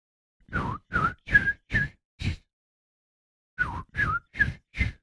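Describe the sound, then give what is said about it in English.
A person whistles an imitation of a bird call: a phrase of five short, clear chirps, a pause of about a second, then four more, fairly loud with no talking. “It's quiet. All you can hear is this bird that goes”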